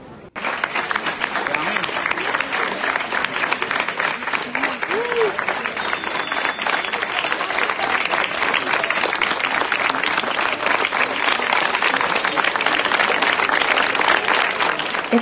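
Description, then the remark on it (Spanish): Sustained applause from a crowd of more than 300 people gathered peacefully in the street in Cuba, waiting for the minister; a dense steady wash of clapping that starts abruptly and stays loud and even throughout, with faint voices mixed in. “Cada 15 minutos de espera, todos los allí presentes aplaudían.”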